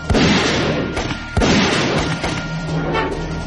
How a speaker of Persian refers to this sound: تیر اول شلیک میشه صداش مثل دوله ولی به ماشین برخورد میکنه